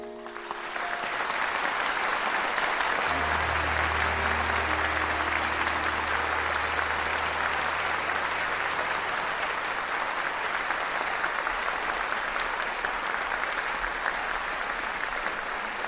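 Loud, sustained applause from a large audience at an amateur film festival as a special award is received, a dense steady roar of clapping that fills the whole clip without letting up, with a low rumble underneath.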